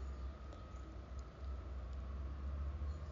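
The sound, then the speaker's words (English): A train rolls past, a steady low rumble with a faint hiss of track noise, holding an even level throughout with no voices; a train comes by about every 20 minutes. “I told you every 20 minutes this train come by.”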